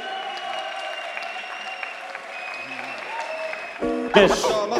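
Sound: audience applause and cheering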